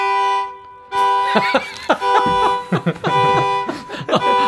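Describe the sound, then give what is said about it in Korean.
A violin mimics a car horn with a sustained, blaring bowed tone that holds for several seconds, while people talk and laugh over it. “아, 예, 괜찮아 자동차 경적 소리 하겠습니다.”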